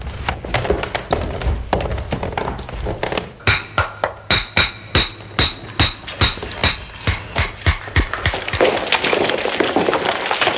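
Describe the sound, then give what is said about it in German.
A wall being smashed in to knock a hole through it: a quick, steady run of a dozen or so hard, hollow thuds, like blows from a hammer on wood, with scraping and clatter before and after. “möchte an dieser Stelle noch sagen, der Sounddesign, ja, mhm. der einfallenden Mauer, das ist schon sehr kläglich.”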